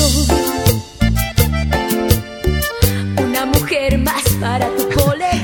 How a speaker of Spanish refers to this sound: Bueno, seguramente si se acuerdan, eh, de esta canción Pero suena más o menos así.